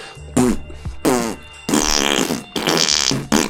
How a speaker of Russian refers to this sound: Но нет, нет, это South Park The Fracture But Hall. Я угадаю эту игру по трем звукам пердежа.